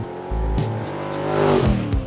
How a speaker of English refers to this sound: We put the top down, crank the car, and it probably wasn't the next corner that we revved it up and peeled out.